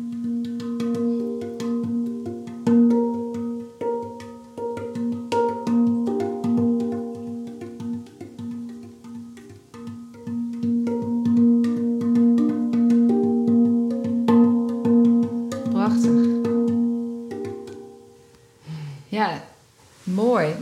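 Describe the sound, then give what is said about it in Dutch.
A space drum, an oval metal instrument with a large resonance chamber inside, is played: a flowing run of struck, ringing metallic notes that sustain and overlap in a gentle melodic rhythm, fading near the end where a voice briefly comes in. “De space drum, dat is een ovaal eh, instrument. Het is metaal volgens mij, joh?”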